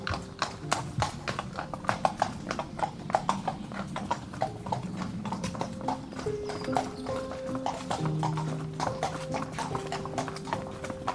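horse hooves clip-clopping

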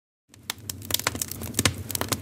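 wood fire crackling

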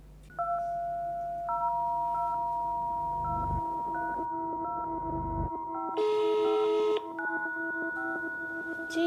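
telephone dialing tones

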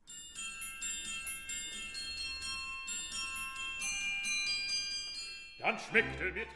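glockenspiel being played

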